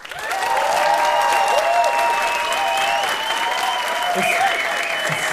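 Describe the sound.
Loud, steady applause from an audience lasts the whole stretch, a dense wash of clapping with whooping and cheering voices riding on top.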